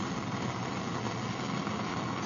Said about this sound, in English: The final bit here is water boiling in a ordinary ceramic mug, which I bought at John Lewis.